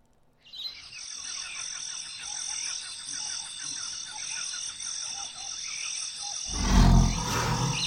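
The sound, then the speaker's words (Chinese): A tiger gives one sudden, loud, deep roar near the end, breaking over a steady high chorus of chirping birds and croaking frogs that fills the whole clip, in a mountain forest. “那是老虎哎！”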